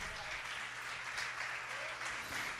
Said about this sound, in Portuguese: Você crê nisso que você está batendo palma agora?